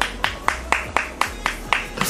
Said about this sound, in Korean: 모든 제작진분들이 네. 박수를 치고 있고.